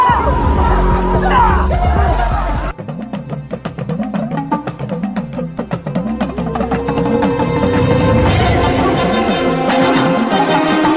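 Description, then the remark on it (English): A large crowd, waiting as a ship lands in front of them to welcome their prince home, roars and cheers loudly and continuously, with whoops and chanting voices blending into a dense, festive din that swells near the end. “The ship lands in front of the crowd, waiting to welcome their prince home, surrounded by their home in all its beauty.”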